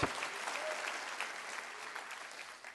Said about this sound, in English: Clap your hands all over this house and rejoice in spirit today. Rejoice in spirit.